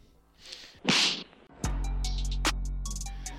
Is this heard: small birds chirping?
no